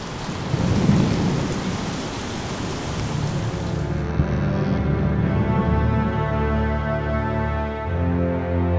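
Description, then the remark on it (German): A heavy thunderstorm at sea, around a ship, roars with dense, steady rain and a deep rolling rumble of thunder near the start; the downpour softens slightly midway while low, droning tones linger beneath the storm. “Haben wir es aus dem Sturm geschafft?”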